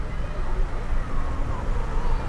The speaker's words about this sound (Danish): Vandet løber raske sted i den brede flod. Vi er nogle få kilometer, måske 20-30 kilometer fra det sted, hvor Ganges for alvor forlader Himalaya-bjergene. Vi er i byen Haridwar.